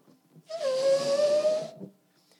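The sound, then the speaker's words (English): Someone blows air into a balloon: a single steady rush of breath lasting just over a second, with a clear whistling tone running through the hiss. No one speaks. “You know, when you blow in a balloon, you fill it with air, you begin to fill the space.”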